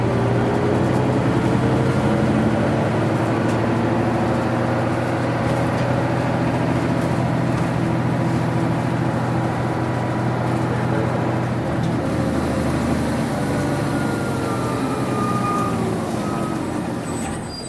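A Toei (都バス) city bus engine in Tokyo idles and hums loudly and steadily while the bus waits to depart, a deep droning rumble with slight shifts in pitch as it runs continuously throughout.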